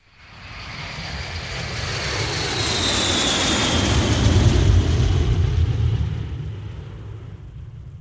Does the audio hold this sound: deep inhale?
no